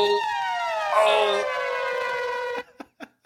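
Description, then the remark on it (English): A loud siren-style free game alert sound effect wails with a descending harmonic sweep for about two and a half seconds, then cuts off, followed by a few brief clicks. “that noise is the free game alert.”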